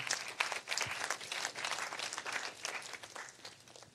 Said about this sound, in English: yeah, give the Lord a round, round of applause while you're there.